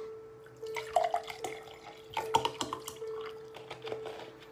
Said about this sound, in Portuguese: Deixa eu encher o meu copinho aqui que eu bebi durante a live.